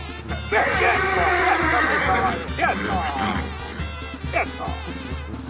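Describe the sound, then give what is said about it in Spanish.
A horse neighs loudly, one long quavering whinny followed by shorter breathy bursts, over a steady low hum in the background. “es muy educado su caballo.”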